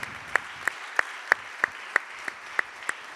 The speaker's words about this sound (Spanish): ¿Lo recuerdan el sexteto tango? Hay que aplaudir el sexteto tango.